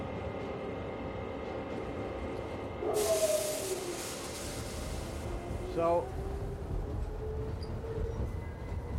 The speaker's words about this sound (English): And we are we are moving. Well, um, I think No, we are on the train.